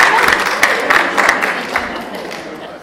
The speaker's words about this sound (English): Thank you very much. Okay. Thank you. Let's give a very, very round of applause.